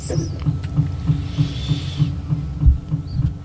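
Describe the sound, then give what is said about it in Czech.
An independent parking heater in a van, running because it is not yet summer, knocks steadily in the background, soft low thuds repeating about three times a second in an even rhythm, with a faint airy hiss above and no voices. “Jo, a já připomenu, že to klepání, který slyšíte v pozadí, tak je nezávislý topení, protože furt ještě není léto.”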